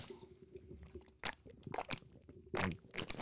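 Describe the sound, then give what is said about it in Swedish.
Gulps of Red Bull energy drink from a can: a few wet, irregular swallowing bursts with small clicks and slurps, fairly quiet, with no talking. “Ja, en Red Bull går rakt ner i, i magen.”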